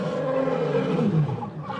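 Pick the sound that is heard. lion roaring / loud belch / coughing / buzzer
lion roaring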